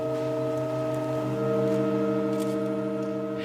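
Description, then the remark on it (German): A steady, sustained church organ chord, heard just after a rare change of notes in a very slow piece whose tones usually last about seven years, drones without a break, its layered pitches holding perfectly still at a moderate level, with no voices or other sounds. “Aber jetzt am Wochenende, da ist was wirklich Spektakuläres passiert. Es gab einen Klangwechsel.”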